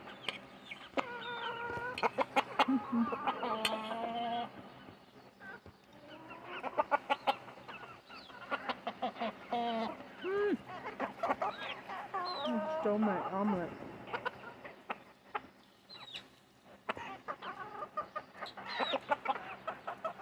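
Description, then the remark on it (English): A flock of chickens clucks and squawks excitedly at feeding time in overlapping bursts, fairly loud, with sharp clicks and scratching sounds scattered throughout. “That's whenever I feed my chickens.”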